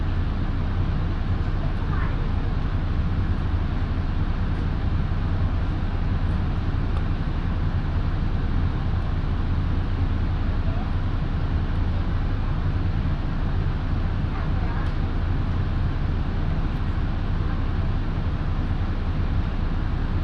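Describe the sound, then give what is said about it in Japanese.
A steady, loud rumble of a Japanese down-line one-man local train bound for Kofu, departing after waiting to pass another train, heard from inside the carriage, with deep low-end vibration and constant motion noise that stays even from start to finish. “また列車と行き違いを行います発車は11時10分ですお待たせいたしました下りワンマン列車甲府駅きまもなく発車いたします”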